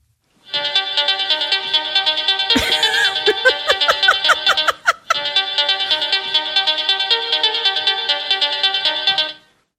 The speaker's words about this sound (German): Und hier kommt jetzt äh, mein neuer Klingelton.